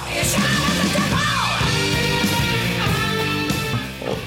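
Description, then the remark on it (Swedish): A voice imitates screamed metal vocals: a loud, raspy, sustained yell lasting about four seconds, harsh and strained, with no other talk. “De sjunger skrik åt djävulen.”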